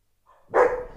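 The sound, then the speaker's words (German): A dog gives a short whine that rises into a loud, sustained bark-howl, heard on its own without any talking. “ja, also deine Hunde sagen es schon eigentlich.”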